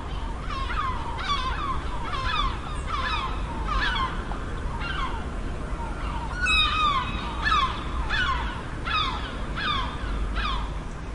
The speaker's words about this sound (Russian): вы слышите крики чаек записанные в колонии на берегу Атлантического океана в Испании.